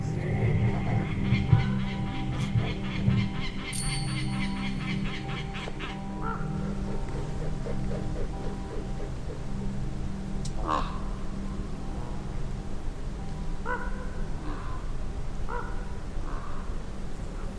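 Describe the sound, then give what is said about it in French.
Distant harsh calls of common ravens and a peregrine falcon, faint and far off, repeating in short bursts against a steady outdoor background. “Il y a un faucon pèlerin là-bas qui gueule grands corbeaux. Mais c'est pas fort, hein, c'est loin.”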